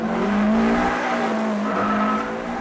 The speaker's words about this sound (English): Block hucks the black and green Subaru into impossibly long drifts around an empty airfield, kicking up walls of white tire smoke